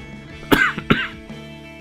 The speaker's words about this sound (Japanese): なんか咳とかって時間帯とかにもよってすごい出方違いますよね。朝とかほとんど出なかったりとかして、今日もなんかクリニック行って、あの、先生と話している間、なんかほぼ咳出てなくて、なんかもやもやしますよね。